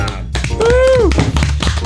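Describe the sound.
Brief applause for a winner: a quick run of dense, fairly loud claps lasting under two seconds, with a voice letting out a short sliding cheer partway through.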